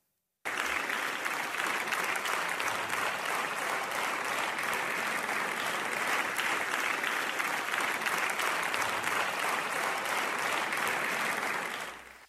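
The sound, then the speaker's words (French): Sustained applause from deputies in the hemicycle of France's Assemblée nationale, paying tribute to the victims of a terrorist attack, with all deputies clapping except those of La France insoumise: a dense, steady crackle of many hands for about twelve seconds before tapering off at the end, with no voices rising above it. “Tous les députés applaudissent, sauf ceux de la France insoumise.”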